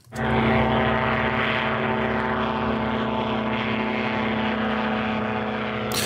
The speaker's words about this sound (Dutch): Ja, een propellervliegtuig, zo klinkt het een beetje. Dat klopt. Ja. Is ook dezelfde soort motor en zo? Ja, we hebben twee, dat heet Rotax motoren. Dat zijn wereldwijd bekende motoren.